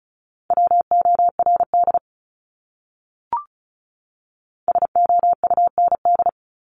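Fast Morse code tones at 35 words per minute, a single steady pitch keyed in quick dots and dashes, heard in two short bursts separated by a pause and a brief click. No voices.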